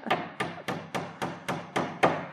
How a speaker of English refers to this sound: I just love hang- banging in nails. You can see how good I am at it.